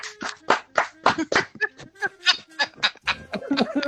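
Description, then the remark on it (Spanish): A few seconds of applause: a quick, uneven run of sharp claps at a steady loud level, mixed with honking, whooping vocal sounds over the top and busier noise toward the end. “Por favor, el aplauso.”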